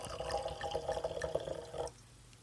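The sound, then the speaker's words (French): Red wine being poured from a mystery bottle into a glass: a steady gurgling splash with bubbly, rising tones for about two seconds, then stopping abruptly and leaving near silence. “on va passer à cette bouteille mystère que je souhaite te faire découvrir”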